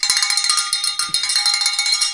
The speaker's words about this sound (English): a little cowbell there. All right. We we need some cowbell. We're going to need some cowbell today.